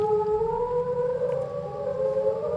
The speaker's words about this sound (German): Zum Schluss der Gesang eines Buckelwals